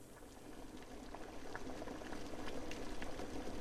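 Water with ramen noodles and powdered soup bubbles steadily in a pot on a gas stove, a dense, continuous churn of small pops and gurgles that builds slightly in intensity, with no voices.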